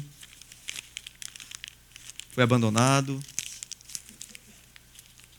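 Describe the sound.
A sheet of paper is crumpled, crinkling and crackling in irregular bursts across the whole stretch, while a man briefly speaks over it in the middle.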